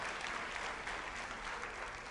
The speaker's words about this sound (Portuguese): Você pode aplaudir o Senhor, gente?